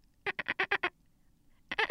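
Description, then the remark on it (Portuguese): A female pet cat chattering, the noise she makes when a saxophone starts being played: a quick run of six short, harsh, clipped bursts, a brief pause, then another burst of chatter starting up. No talking over it. “E a minha gata, na hora em que ele começa a tocar saxofone, ela fica fazendo esse barulho aqui, ó.”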